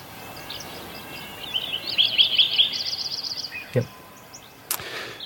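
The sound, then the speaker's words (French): Early-morning birdsong in a mountain meadow habitat in the Sierra Nevada mountains, with crows: a bright, rhythmic series of repeated chirping notes rising over a soft, steady background hush, followed by a couple of brief knocks near the end. “Vous croyez à l'aspect thérapeutique justement de, ces sons de la nature On parlait du, bien-être qu'on éprouvait en, écoutant justement ces, oiseaux en particulier.”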